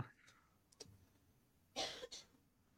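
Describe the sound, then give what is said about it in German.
Two quick coughs in the background from a woman who has a slight cold, a sharp hack followed closely by a second, softer one, after a stretch of quiet with a few faint clicks. “Hat man das Husten ja, gehört? Meine Frau ist etwas erkältet.”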